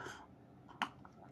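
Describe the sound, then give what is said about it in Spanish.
A quick sip of juice: a soft breathy rush, then a short wet slurp near the middle, quiet and with no talking. “Sorbito. tengo aquí un jugo para refrescar la garganta.”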